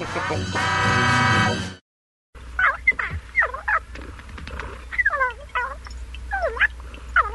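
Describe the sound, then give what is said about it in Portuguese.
A steady buzzing tone cuts off, then a mogwai, a small furry creature, sings in a high, cooing, warbling voice, its rising and falling chirpy notes repeating in short melodic phrases, clear. “O que é isso? Mogwai. O que ele está fazendo? Cantando.”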